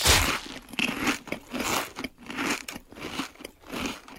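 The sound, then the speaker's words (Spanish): Crunchy potato chips being bitten and chewed, a steady series of crisp, crackling crunches repeating roughly every half second, fairly loud with no voices. “Oye, amigo, ¿no tienes papas con sonido?”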